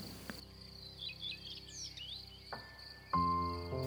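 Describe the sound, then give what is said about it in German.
A steady, high cricket-like insect drone fills the background, with a few quick bird chirps and twitters flitting over it, all fairly soft, alongside low sustained tones. “Ganz langsam kannst du auch die Tiere um dich herum wahrnehmen Insekten, die Schmetterlinge, die Vögel.”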